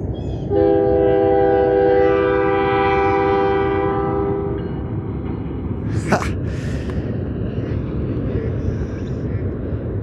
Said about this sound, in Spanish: Mira, en este momento un vagón de tren va cruzando por un puente encima del río.